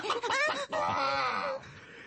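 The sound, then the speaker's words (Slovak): Hens cluck and small chicks peep in a yard, a busy overlapping chorus of short rising and falling calls that lasts about two seconds, with no one talking. “Sliepky a malé kuriatka, s ktorými sa na dvore mutáš každý deň.”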